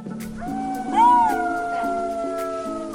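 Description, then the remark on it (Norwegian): Golden jackals howl in a steady chorus, several high wavering voices overlapping and sliding up and down, with one call briefly rising louder above the others before settling back. “Dette er lyden av et helt nytt rovdyr som er dukket opp i Norge.”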